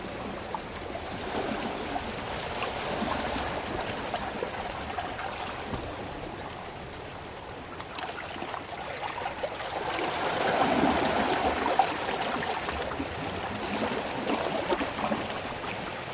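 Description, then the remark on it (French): Continuous rushing water noise from the sea, swelling slightly louder midway and then settling, with a steady breezy hiss throughout and no voices. “On va vous faire écouter la mer, s'il n'y a pas trop de vent.”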